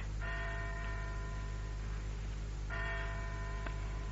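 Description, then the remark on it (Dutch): A tower clock's bell in the tower above a house tolls twice to mark the time, slowly and a few seconds apart, each stroke ringing out and fading over a steady low background hum. No voices are heard. “In de toren boven het huis gaf de klok op een bijna waardige wijze de tijd aan.”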